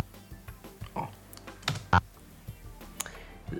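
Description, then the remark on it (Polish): Computer keyboard keys pressed to type shortcut combinations such as Ctrl-C, Ctrl-V and Ctrl-A, in an irregular series of sharp clicks and taps, with a couple of louder strikes standing out, and no one speaking. “Ale w praktyce w tekście udało mi się y, wykonać kombinację Ctrl-C, Ctrl-V i Ctrl-A, więc to działa.”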